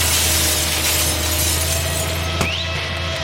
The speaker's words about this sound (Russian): Нет, ну посмотрите, я тут работал, а вот этот человек разбил фару моего экскаватора.